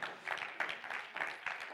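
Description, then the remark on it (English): A church crowd clapping their hands unto the Lord in a steady, rhythmic beat, the claps blending into a dense, continuous patter that holds an even loudness throughout. “Oh, clap your hands unto the Lord tonight.”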